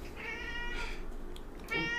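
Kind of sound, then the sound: animal, cat meowing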